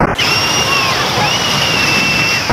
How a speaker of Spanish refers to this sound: Mientras en algunos lugares la sequía nos obsequia con el emerger de antiguas iglesias, campamentos romanos o complejos megalíticos, en otras zonas el agua arrasa.